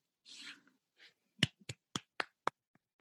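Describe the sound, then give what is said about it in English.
One fan claps alone, about five or six sharp, crisp claps in a slightly uneven rhythm that fade off at the end, after a brief breathy noise at the start. “One fan who is clapping.”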